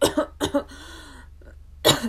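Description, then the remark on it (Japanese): Three sharp, dry coughs, caused by air dried out by heating left running: two quick dry bursts in a row, a short pause with a faint breath, then a final louder cough. No talking. “咳が乾燥ですねどうしてもね暖房つけっぱだから”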